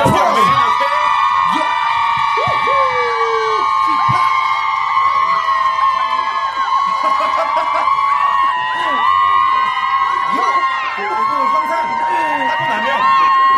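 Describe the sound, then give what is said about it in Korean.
Fans who came to an open studio cheer and shout live, not a sound effect, continuously for over ten seconds, a dense, loud wall of overlapping yells and whoops with high-pitched voices rising above the roar, no single speaker standing out. “근데 이게 우리 직접 오픈 스튜디오에 오신 분들이 직접 환호성을 질러 주신 겁니다.”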